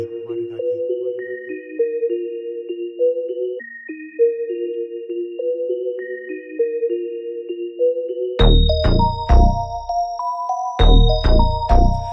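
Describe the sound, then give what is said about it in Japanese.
The intro of a Japanese rap song: a bright, chiming synth melody repeats on its own, then heavy booming bass hits and drums crash in for the last few seconds, with no vocals yet. “音源は各ストリーミングサイトや iTunes などでも聴けるので、ぜひ聴いてみてください。”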